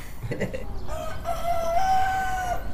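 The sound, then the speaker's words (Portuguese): A rooster crows once, a long drawn-out call rising and holding steady for over a second, clear above a low, constant background hiss. “Não canta a Maria, cantou o galo.”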